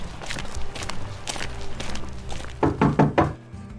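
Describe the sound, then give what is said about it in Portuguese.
Footsteps shuffle about, then four firm, closely spaced knocks land on a door, loud, followed by a brief silence. No one speaks. “acho que tem alguém na porta.”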